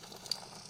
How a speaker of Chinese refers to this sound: 哦，这是烧木头的声音， 对，烧木头的声音。